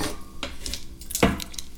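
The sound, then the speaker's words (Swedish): A die is rolled, rattling and tumbling across a hard surface with a few sharp clicking knocks and one louder clack near the end, landing on a six; heard on its own without talk. “Ja, vi kan slå en tärning här då.”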